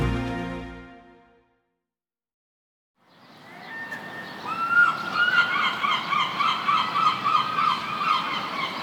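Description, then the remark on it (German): After a fading tone and a short silence, harsh seagull cries start up and keep repeating, loud, over a steady outdoor hum: a gull at Niendorf harbour on the Baltic coast, about 20 km from Lübeck, at 8 a.m., strutting between fish stands looking for scraps, with some 20 boats rocking at the quay wall. “Eine Möwe starkst zwischen Fischständen herum, sucht nach Resten.”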